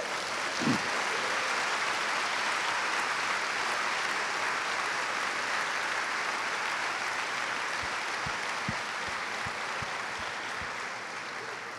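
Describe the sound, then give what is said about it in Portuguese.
Sustained applause from a church audience clapping for Jesus, a dense, steady wash of clapping that stays loud for the full stretch, with a few sharper individual claps standing out near the end. “Suas palmas primeiro foram para Jesus, depois para você dizer: Estou em concordância com o amado.”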